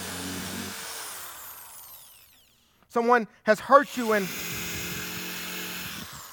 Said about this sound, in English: I need a new drill